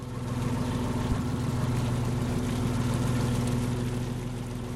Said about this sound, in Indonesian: Menjelang pukul 6 pagi, walaupun suasana sekitarnya masih gelap, sejumlah kapal penangkap ikan kembali ke pelabuhan. Saat ini kira-kira 20 kapal perangkap ikan yang menyalakan lampu bergerak di laut ini.